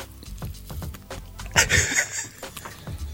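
A crisp crunch as someone bites into a chocolate-coated curd snack, one bright crackling bite midway, surrounded by soft munching and handling noises, with no talking.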